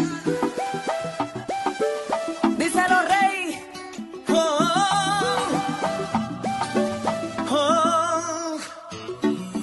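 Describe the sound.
An upbeat pop song plays loudly and continuously, with a male singer's melodic, wavering vocal lines and short chanted ad-libs over a steady beat and full backing instrumentation.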